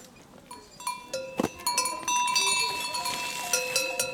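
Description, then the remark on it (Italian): Several cowbells clank and jangle unevenly as cows, disturbed from their rest, stir and shift about, overlapping tones ringing steadily at moderate volume, with faint murmurs in the background. “quindi adesso questo dovrebbe essere il momento di pausa, noi li abbiamo disturbate dal loro sonno. Sono bellissimi.”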